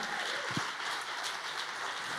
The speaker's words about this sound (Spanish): Si tú le vas a dar un aplauso si tú se lo vas a dar el aplauso.